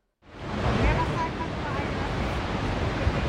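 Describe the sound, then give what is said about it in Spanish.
Outdoor ambience high on a suspension footbridge in the Desfiladero de los Gaitanes gorge, Málaga province, Spain: a steady, full rush of wind and flowing water below, loud and constant, with a faint thump near the end and no one speaking. “Hoy les mando la postal sonora desde un puente colgante.”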